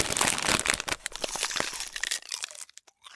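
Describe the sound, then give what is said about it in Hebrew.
Loud crinkling of a plastic bag of Bissli snack mixed with sharp crunching of Bissli being eaten on a school trip bus, dense at first, then thinning into a few scattered crunches and rustles toward the end. “עכשיו אני אוכל ביסלי, רוצה?”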